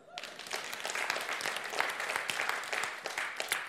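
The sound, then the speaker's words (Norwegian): An audience breaks into sustained applause, many hands clapping in a dense, crackling wash that holds steady for a few seconds with scattered sharper claps standing out. “Kan vi klappe det, eller?”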